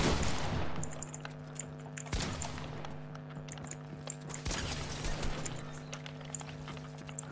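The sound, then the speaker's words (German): Rapid video game gunfire crackles in repeated bursts over a steady electronic hum, with sharp individual shots standing out near the start and middle. No one speaks. “Das ist immer meine Schüsse.”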